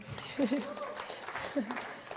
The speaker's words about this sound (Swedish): Victoria Nordin, ge henne en applåd här.